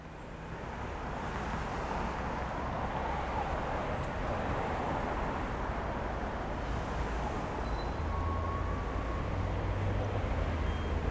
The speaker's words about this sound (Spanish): Estoy en el auto en camino a Mar del Plata, o Mardel.